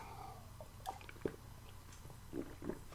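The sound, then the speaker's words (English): A few soft, wet sipping sounds of a person drinking a Caribou chocolate wonder coffee, brief slurps and swallows spaced irregularly over a quiet background hum, with no talking. “So as I get a sip of coffee here”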